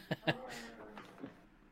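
A short gurgling growl from a stomach: two quick bursts, then a drawn-out, tonal rumble that wavers for about a second before fading, close and moderately loud with no talking.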